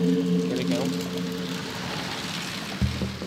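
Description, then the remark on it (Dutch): Bicycles, one ridden by a rider in his eighties, riding on the indoor velodrome track of the Eddy Merks training centre at the Blaarmeester in Ghent: a steady, low tonal whir of wheels fades out amid a broad rushing hiss, then a fresh humming whir rises abruptly near the end. “We zijn in de overdekte wielerpiste van het trainingscentrum eh, Eddy Merks aan de Blaarmeester in Gent.”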